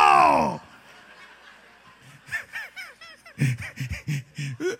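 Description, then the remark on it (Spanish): A voice imitates the engine of a small propeller plane taken from San Andrés: a loud, buzzy opening drone, a brief lull, then a run of choppy, rhythmic sputtering bursts. “de San Andrés agarramos una avionetica que parecía que se iba a caer, iban dos ángeles jalándola y uno de ellos estaba medio dormido.”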